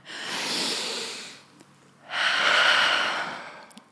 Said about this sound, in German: Alter, lass mal kurz kollektiv hier einatmen. Okay, okay warte. Eins, zwei, drei.